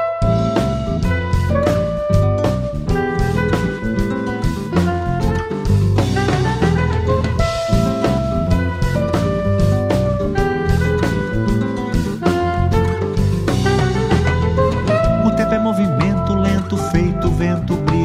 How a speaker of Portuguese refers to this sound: Então é com mais uma autoral que a gente segue. Eu separei para agora a canção ….